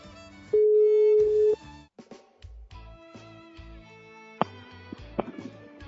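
A single loud, steady telephone ringback tone during a live outgoing call, lasting about a second, followed by quieter, choppy tonal sounds that resemble fragments of music.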